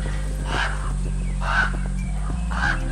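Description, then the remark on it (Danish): Three harsh raven caws, evenly spaced about a second apart, ring out over a steady low droning hum, with no voices present. “Odin er ham med kun et øje – den ottebenede hest Sleipner og de to ravne Hugil og Munin på skulderen.”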